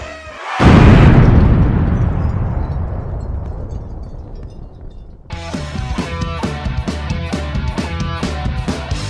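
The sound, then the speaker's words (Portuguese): A single loud explosion sound effect blasts out as the Papo Blast show goes on air and rumbles away in a long fading tail, then upbeat music kicks in over the last few seconds. “Está entrando no ar o Papo Blast uma explosão de bom humor.”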